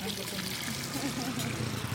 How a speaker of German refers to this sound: misst das Desinfektionsmittel genau ab und schüttet es in einen Eimer mit Wasser.